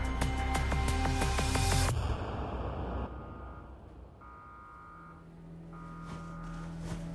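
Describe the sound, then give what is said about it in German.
A ship's alarm bell rings loudly and rapidly for about two seconds on a passenger ship, then falls away, followed by fainter, intermittent electronic alarm tones over a low mechanical hum. “Was ist das für ein Geräusch? Eine Glocke? Ein Wecker?”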